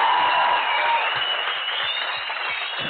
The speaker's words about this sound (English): Congratulations. A round of applause for those guys.